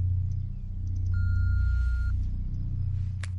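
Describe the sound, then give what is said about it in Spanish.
A single steady voicemail beep tone, about a second long and fairly clear, sounding over a constant low engine-like rumble with no one speaking. “Hola, soy yo. Espera el ruido.”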